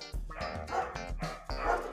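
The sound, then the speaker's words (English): Several dogs bark in quick, overlapping bursts, three strong volleys over two seconds, loud, with no talking over them. “the dogs agree with me.”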